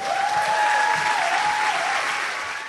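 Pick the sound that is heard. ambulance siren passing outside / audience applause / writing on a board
audience applause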